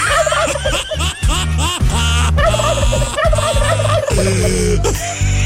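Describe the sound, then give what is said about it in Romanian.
Loud turkeys gobble continuously, several birds overlapping in rapid warbling bursts that fill the whole stretch with no pauses. “Să păstreze curcanii.”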